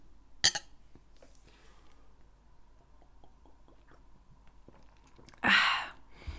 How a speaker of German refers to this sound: Ich finde das auch bei Bier. Wunderbar. Ich finde das bei Bier auch echt äh, nochmal so einen anderen Sound, wenn man dieses Gluck, Gluck, Gluck, Gluck, Gluck hört.